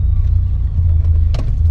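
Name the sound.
car engine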